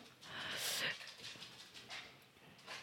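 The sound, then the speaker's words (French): A small pet dog named Juju pants softly as it passes behind, a run of quick, breathy huffs that swell briefly and then taper off, with no voices over them. “Il y a un petit chien qui passe derrière.”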